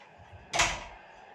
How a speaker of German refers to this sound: Mach Tür zu.